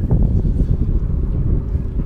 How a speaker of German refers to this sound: Ich hoffe, dass, der, der Windgeräusch, dass die Windgeräusche nicht so krass sind. Sonst hört man nämlich nichts mehr hinterher.